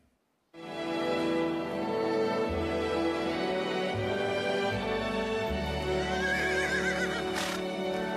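A horse neighs loudly in a long, wavering whinny that fills several seconds, with heavy low thudding beneath it and no one talking.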